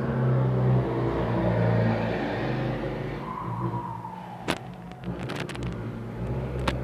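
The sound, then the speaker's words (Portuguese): A motorcycle engine roars past outside, loud and droning at first, then its pitch slides downward as it moves away, followed by a few sharp clicks and lingering road noise. “Desculpa a moto aí.”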